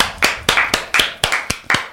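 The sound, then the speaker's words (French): Someone claps their hands about eight times at a brisk, slightly uneven pace, each clap a sharp, bright smack ringing with a short tail, with no talking in between, applauding a piece of music just played. “Magnifique morceau, magnifique, j'ai envie d'applaudir Bravo, Bravo”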